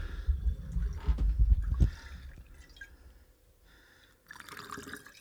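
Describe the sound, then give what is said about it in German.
Water, called magic water, is poured by feel into a cleaned bottle with a gurgling, bubbling rush that rises in pitch as it fills, then trails off into quieter trickles and a brief final splash. “Hier eine schöne Flasche füllen.”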